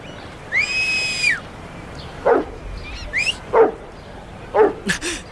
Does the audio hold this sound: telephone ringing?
no